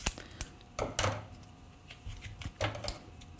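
A knife cutting tofu out of its plastic packaging at a kitchen sink, heard as sharp crackling and scraping bursts that come in a few irregular clusters with short pauses between, with no one talking.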